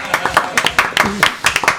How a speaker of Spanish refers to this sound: Aplausos.